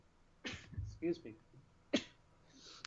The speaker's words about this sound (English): I am sneezing.